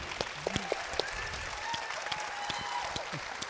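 Steady audience applause for two guests fills the room for a few seconds, dense overlapping claps at moderate volume with a faint murmur of voices underneath.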